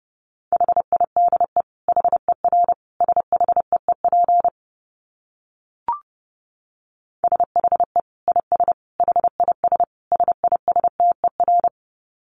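Rapid Morse code beeps at 30 words per minute in a steady mid-pitched tone, quick dots and dashes grouped into bursts, pausing briefly midway before another run of fast keyed tones. No one speaks.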